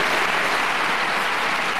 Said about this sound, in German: Langer Applaus für den neuen Bundesminister Karl Lauterbach bei der Bestätigung seines Eids am Mittwoch im Bundestag.